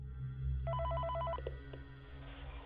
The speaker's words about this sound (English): The moment he gets set up, he is greeted by a new call from Phone Dude.